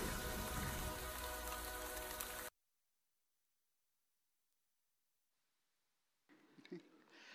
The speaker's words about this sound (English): A few minutes later, the sky filled with clouds, and God sent rain to Samaria.